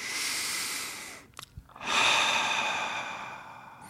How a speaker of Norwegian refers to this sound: Og effekten av å puste ut. Altså hvis vi trekker inn pusten